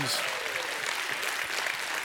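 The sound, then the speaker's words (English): A church audience claps steadily in dense, continuous applause as a hand clap and shout of praise to God, with voices shouting and cheering mixed into the loud clapping throughout. “If you believe it, give God a hand clap and a shout of praise.”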